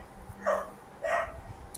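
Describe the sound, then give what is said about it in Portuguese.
A dog barks twice, about half a second apart, each bark short and fairly sharp, over a quiet background hum, with no talking. “Desculpa aqui que o cachorro tá atindo aqui.”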